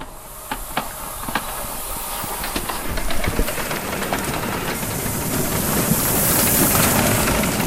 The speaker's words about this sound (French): on va rouler, mais sans brûler de combustible, sans créer de vapeur, juste sur la réserve de vapeur